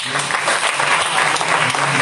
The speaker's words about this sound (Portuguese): Eu agradeço pela rica oportunidade, as palmas agradecem.